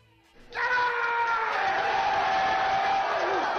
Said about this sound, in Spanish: El rugido de la victoria, por supuesto.